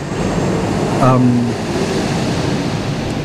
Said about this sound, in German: und ich habe Fragen, was das gerade für ein Geräusch war. Ich werde aber später nachfragen. ähm, Dort, wo ich gerade bin, ist die Einflugschneise. Das war ein Flugzeug.